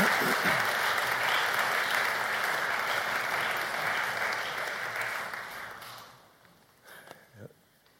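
An audience applauds with dense, steady clapping for about six seconds before it fades out, leaving a few faint scattered sounds at the end.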